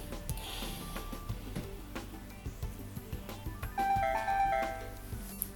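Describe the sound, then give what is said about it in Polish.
The startup sound of an Actilino braille display, hanging on the user's belly below the table, as it is switched on: a short, bright electronic chime of a few rising tones near the end, faint against low background noise and clicks, with no one speaking. “uruchamiamy sobie aktilino, które wisi mi tutaj grzecznie na brzuchu. Mam nadzieję, że go będzie słychać.”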